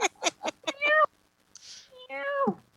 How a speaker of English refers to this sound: But I brought cat version of you. See, you very cute. you very cute. You small kitten.